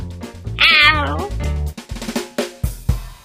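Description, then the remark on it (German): A cat lets out one loud, drawn-out, wavering meow that slides downward, followed by a few shorter low grunting sounds and soft thumps. “Jedoch sollte auch der von Katzenmusik noch so verzückte Mensch sich eines merken.”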